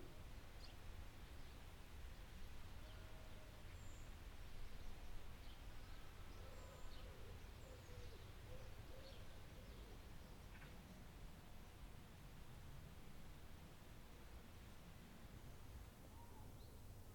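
A quiet garden ambience of steady insect buzzing and soft rustle, with faint, scattered bird chirps. No one speaks.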